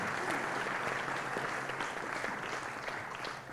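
An audience breaks into steady applause, a dense wash of many hands clapping at an even level for a few seconds before easing slightly at the end.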